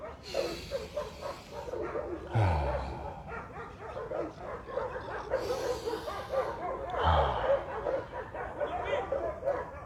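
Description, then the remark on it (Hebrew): Several dogs at a dog park bark and yip continuously, overlapping in an uneven, busy chorus with occasional whimpers, no voices, filling the whole stretch. “מגינת כלבים הרימה את הווליום, זה זמן טוב לנשום.”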